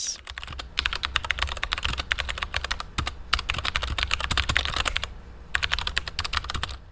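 Rapid typing on a computer keyboard, with dense clusters of sharp clicking keystrokes broken by a few brief pauses, fairly loud with no voices.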